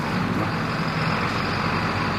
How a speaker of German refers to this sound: Und dieser LKW, den Sie gerade gesehen haben, fährt nach Italien.